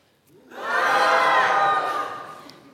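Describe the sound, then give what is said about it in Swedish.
A church audience screams together on cue after a three-two-one countdown, a loud collective shriek that swells quickly, holds for about a second and a half, then trails off. “Kan jag få ett skrik av församlingen?”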